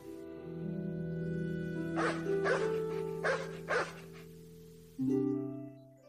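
A dog barks four times in quick, uneven bursts over a steady bed of sustained musical tones, the barks distinct before the music carries on alone.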